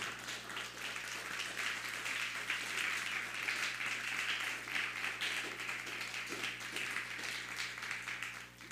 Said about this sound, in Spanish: Entonces, pues, pues vamos a darle otro aplauso, porque ya me gustaron mucho los aplausos para el Eterno.